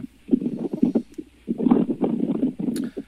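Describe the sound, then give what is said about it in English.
Rough, low wind buffeting through a cracked car window, rumbling in uneven gusts with a brief lull midway, loud, with no one speaking. “Uh, yeah, I just cracked the window in my car.”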